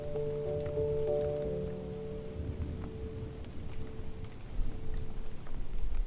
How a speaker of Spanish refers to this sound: Además de todo, empezó a llover.